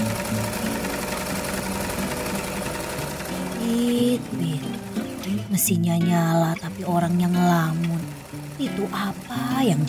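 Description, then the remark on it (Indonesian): A sewing machine, on a table with piles of fabric and other supplies, runs with a steady mechanical whir for the first few seconds, then keeps humming underneath as people start talking over it. “Mesin jahit lengkap dengan tumpukan kain dan perlengkapan lainnya.”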